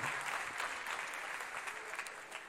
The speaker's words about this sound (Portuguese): Não, aplauda bonito e aplauda forte.